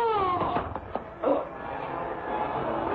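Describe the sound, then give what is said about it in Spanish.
An Arab man's pained cry as a small blowgun dart lodges in his chest, a wavering, moaning wail that starts strong with falling harmonic tones, then breaks into a rougher, strained groan that trails on for a few seconds. “Calimán lanzó un pequeño dardo que se incrustó en el pecho del árabe, haciéndolo lanzar un grito de dolor.”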